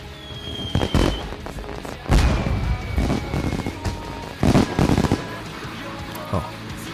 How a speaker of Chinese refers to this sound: 在这个呃爆竹声中，然后祝福我们的剧组，嗯，新年快乐！